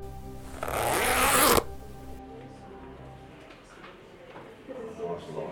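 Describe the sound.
A zipper is pulled up in one quick, loud rasping stroke lasting about a second, followed by a voice speaking quietly.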